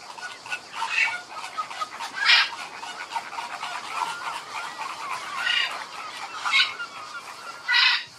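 A flock of flamingos across a pond keeps up a steady chorus of goose-like honking calls, several birds overlapping, with louder bursts standing out now and then; males with rougher voices, females higher-pitched.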